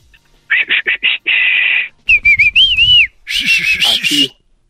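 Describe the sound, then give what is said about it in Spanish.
A loud human whistle call, a distinctive Mexican calling whistle by a father looking for his child in a supermarket: four quick sharp chirps and a long held note, then a wavering, gliding phrase, ending in a breathier, noisier burst of whistling. “y yo creo que no encontraban al niño y el papá empezó a chiflar, pero un chiflido así que solamente los mexicanos conocemos.”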